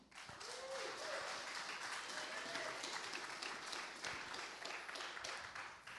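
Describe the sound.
A roomful of people applauds steadily for several seconds to welcome a speaker, a dense, even wash of clapping with a faint voice or two briefly audible beneath it.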